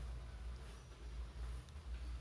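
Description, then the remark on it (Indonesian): A steady, low mechanical hum from an electric water pump runs beneath a constant wash of flowing water, fairly quiet and unbroken throughout, with no voices. “dengar gak sih suara air yang mengalir gitu kayak suara di apa air terjun gitu tapi bukan air terjun itu air mesin sanyo gitu bukan sanyo sih sipel”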